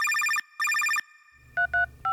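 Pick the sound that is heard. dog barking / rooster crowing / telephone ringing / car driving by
telephone ringing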